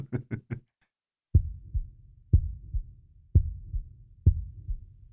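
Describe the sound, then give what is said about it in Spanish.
A muffled, low heartbeat thuds steadily, four double-pulsed beats about a second apart over a dull rumble, after three quick sharp taps at the start; an old man's heart still beating beneath a heavy mattress. “Pero el corazón siguió latiendo, con un sonido ahogado.”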